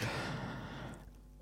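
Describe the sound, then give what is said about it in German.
A dog's soft, breathy snore: one drawn-out exhale that starts fairly full and fades away over about a second, quiet, with no talking. “Die schnarcht ja. heute sowieso nur, nur.”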